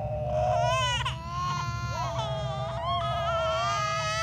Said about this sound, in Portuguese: E as crianças com medo começavam a chorar.